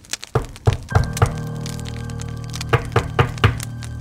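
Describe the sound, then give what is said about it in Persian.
Firm knocks on a wooden cabin door at dusk, a cluster of three or four raps, a pause, then another quick group of four, with a faint lingering hum underneath. “هوا گرگ و غروب در قاب پنجره جا خوش کرده بود بیحال روی تخت دراز کشید و از رادیو منتظر شنیدن از شد که ناگهان کسی بر در کوبید”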